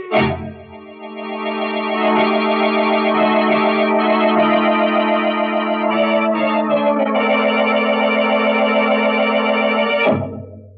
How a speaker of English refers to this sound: But instead of listening to that alarm, you should have paid more attention to that wife of yours.